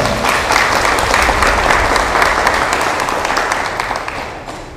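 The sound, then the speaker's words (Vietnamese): Sustained applause from a sizable audience celebrating the new year in the new main hall of a Buddhist temple, a dense wash of many hands clapping at steady loudness that tapers only slightly toward the end. “xin dành một tràng pháo tay để chúc mừng năm mới”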